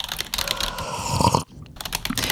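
Rapid keyboard typing, a dense, irregular stream of sharp clicking keystrokes at moderate volume, with a brief pause partway through before the tapping resumes. No one speaks.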